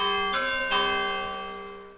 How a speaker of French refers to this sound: J'ai fait le comptage, vous prenez quand même à 7h du matin, le dimanche matin, à peu près 150, 150 coups de cloche.